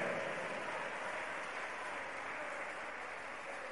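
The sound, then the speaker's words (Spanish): Sustained applause from an audience for the One who lives (God), a dense steady wash of many hands clapping at even loudness for several seconds, with no voices standing out. “Dale un fuerte aplauso al que vive.”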